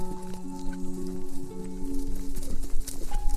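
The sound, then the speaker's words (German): A stallion trots toward other horses, its hooves clopping in a loose, uneven rhythm at moderate volume, set against sustained musical tones that hum steadily underneath. “Der hübsche Hengst trabt fröhlich zu den anderen Tieren”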